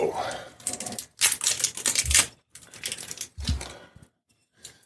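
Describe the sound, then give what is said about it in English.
Crinkly scratching as a plastic seal is peeled off a 2022 bottle being opened, coming in several loud, ragged bursts separated by short pauses. “got that off. I thought I had it off.”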